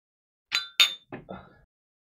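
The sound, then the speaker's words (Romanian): Two bright glass clinks ring out close together, like glasses touched in a toast, followed by a couple of softer, duller knocks as the glasses are handled. No one speaks. “La mulți ani. Cling, cling.”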